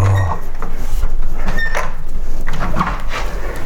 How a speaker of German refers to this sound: Und hier auch. So. Jetzt haben wir die Fenster wieder zu.